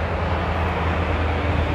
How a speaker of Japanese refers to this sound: なんかちょっとごめんなさい車がうるさいところに来ちゃったけれど